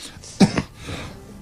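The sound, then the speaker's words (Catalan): A single sharp sneeze bursts out, a quick two-part explosive blast of breath that stands out against otherwise quiet surroundings. “Salut, salut.”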